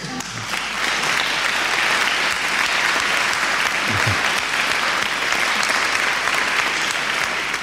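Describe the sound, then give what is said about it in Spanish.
Sustained applause from a crowd for DJs on International DJ Day, a dense, steady patter of many hands clapping at a fairly loud, even level for several seconds, with no voices standing out. “Un aplauso para los que lo sean, ¿eh?”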